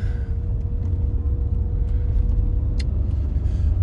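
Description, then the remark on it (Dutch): Steady low engine rumble from inside a moving car as the driver turns around again after finding nowhere to park, with road noise throughout and a couple of brief clicks or ticks, like a turn signal, near the end. “En dan kan ik weer nergens parkeren. Weer draaien.”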